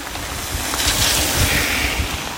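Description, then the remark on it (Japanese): A single car hisses past on a wet road, its tire spray swelling to a broad whoosh midway and then easing off, with no one talking. “はいまた車1台通った”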